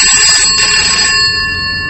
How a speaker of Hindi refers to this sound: घर का land phone बजा